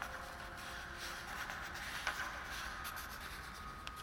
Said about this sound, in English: As I watch, the men in the room on the right end furiously draw something on a large sheet of paper pinned to the wall. I can't see what he's drawing.